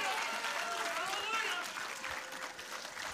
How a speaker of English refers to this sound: Come on, let's give the Lord applause on Valentine's Day.